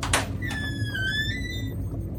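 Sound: door creaking open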